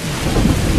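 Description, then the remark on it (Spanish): A loud, steady wash of heavy winter rain with a deep rumble of thunder rolling underneath, brief, with no voices. “Para algunos, el invierno suena así.”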